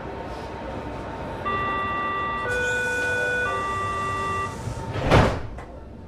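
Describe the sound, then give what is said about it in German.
A subway train hums in the Berlin U-Bahn station of the Natural History Museum, its steady electric whine stepping up in pitch, followed by a sharp hiss of air or a door thud, with no one talking. “Wie cool, dass das Naturkundemuseum in Berlin einfach eine eigene U-Bahn-Station hat.”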